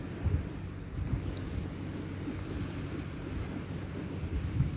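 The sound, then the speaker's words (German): Steady, low rushing of sea surf washing along a stony beach strewn with seagrass and seaweed by a firth, a continuous soft roar with gentle swells and a bit of light, fresh wind noise, no voices. “Das Rauschen Me des Meeres ist wie, hüllt mich gerade ein wie Balsam, wie Balsam in meinen Ohren.”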